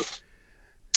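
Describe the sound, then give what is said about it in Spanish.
A sudden sneeze bursts out at the start, then fades into near-quiet with a faint steady hum before a short breathy burst at the very end. “Pues eso eh, eso, hombre, salud.”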